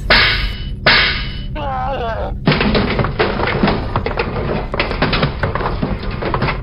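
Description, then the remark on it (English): Two sharp, heavy blows from a shovel striking a creature land in quick succession, followed by a rising squeal and then a stretch of dense, rough thrashing and clattering noise as the shovel clangs onto the ground. “Savage reaches for the shovel and beats the creature to death.”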